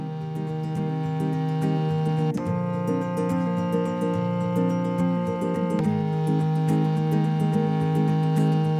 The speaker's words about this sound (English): And it was a, um, it was the the old mellotron, wasn't it? The one with the, the kind of mechanical the one of the '60s ones, which you can hear those clicks. Wasn't it … Mellotron?